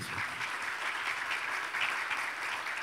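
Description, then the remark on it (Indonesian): A crowd claps steadily for a few seconds, applause given for God, a dense, continuous patter of many hands with no voices standing out above it. “Oke, berikan tepuk tangan bagi Tuhan kita.”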